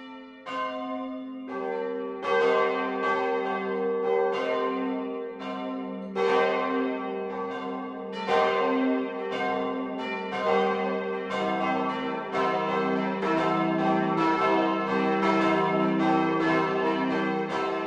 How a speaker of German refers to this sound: Es ist 12 Uhr. Das Mittagsläuten kommt heute aus Burg Grumbach in Unterfranken.